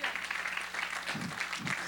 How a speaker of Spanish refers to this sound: denle un aplauso al Señor en esta mañana.